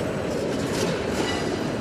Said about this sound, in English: They say the trains that stop here, sometimes for hours on end, are a safety issue. I have got a high level of frustration and it happens every week.